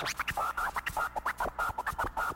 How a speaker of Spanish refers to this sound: Un scratch ahí.